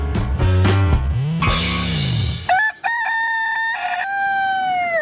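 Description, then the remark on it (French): A voice imitates a rooster's crow as Germans render it: a loud, drawn-out cock-a-doodle-doo, starting low and throaty, then rising into a strained, high, wavering call held to the end. “c'est le son du coq d'après les Allemands”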